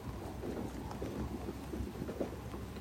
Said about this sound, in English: If you're feeling sad, let the rain take that sadness.